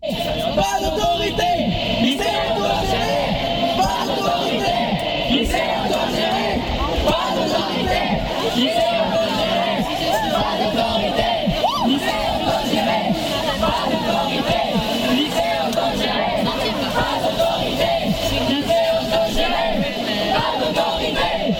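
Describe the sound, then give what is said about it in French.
A large crowd chants slogans in loud, sustained unison, voices shouting together over a dense, continuous roar of many people at a protest. “Il y a eu des slogans et ils posent bien le contexte.”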